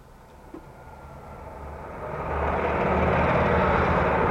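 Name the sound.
truck driving past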